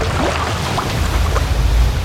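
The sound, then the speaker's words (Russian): Loud, continuous surging of sea water with heavy low rumble and broad hiss, like waves rolling and breaking, with no voices. “Сначала стала лужей, потом прудом, озером и, наконец, целым морем. Пыталась плыть еще сестра, но захлестнула ее волна.”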